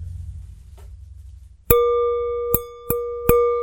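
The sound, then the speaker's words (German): A wine glass is tapped four times, each strike ringing out in a clear, sustained gong-like tone that overlaps the next. The taps are fairly loud over a faint low background hum. “Das war auch der Gong, das klang so ähnlich. Also der, ja. der, für die, die hießen, wie der Zusammenhang jetzt kam zu Was bin ich und dem, dem vors Weinglas tippen”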